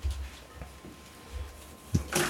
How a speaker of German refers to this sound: Türchen wird wieder geöffnet. Die Bierbox ist da. Die Gläser erscheinen.